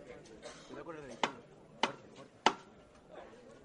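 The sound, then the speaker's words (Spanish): Three sharp, evenly spaced knocks ring out over murmuring voices as a child strikes the llamador (knocker) of the paso de misterio of Nuestro Padre Jesús de la Sentencia in a religious procession. Each knock is a bright, clipped metallic rap. “Un niño está llamando ahora mismo al llamador y acaba de dar esos tres martillacitos.”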